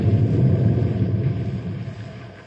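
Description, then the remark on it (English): A deep, low rumble from a dynamite blast of a couple of charges rolls on steadily, then slowly fades over a couple of seconds. No voices are heard. “What was that? Sounded like more dynamite.”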